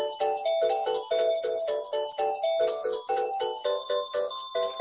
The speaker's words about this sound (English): Let me mute myself out, get rid of this phone call.